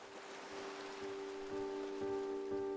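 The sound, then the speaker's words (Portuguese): Steady rain patters over a continuous wash of surf as ocean waves break on sand on a rainy, cloudy day at the seashore, with a soft sustained tone humming underneath; the texture stays even and fairly quiet throughout, with no voices. “Mas o dia estava bem chuvoso e nublado, então ela foi para a beira do mar e, numa distância segura, se deteve a olhar o horizonte, enquanto as ondas quebravam na areia.”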